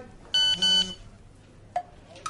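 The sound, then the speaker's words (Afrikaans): Two short, bright musical notes sound one right after the other like a quick jingle, loud and clear, followed by a couple of faint brief taps. “Twee note asseblief.”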